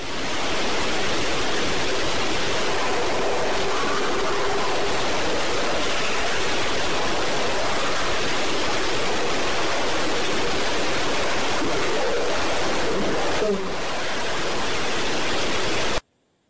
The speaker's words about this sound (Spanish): Fíjense ahora en esa interferencia, en esa especie de variación eh, frecuencial que hay justo antes de decir la mujer, la chica.